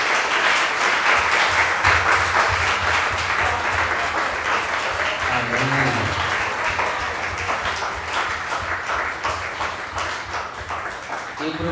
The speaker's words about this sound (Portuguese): Em nome do Senhor Jesus. Amém. Vamos aplaudir o nosso Senhor.